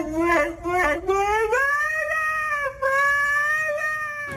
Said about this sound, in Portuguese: Isto é o Husky que dá pelo nome de Aiku a cantar